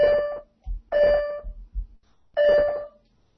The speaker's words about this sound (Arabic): سوري آه، حد فتح الباب